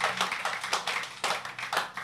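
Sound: audience clapping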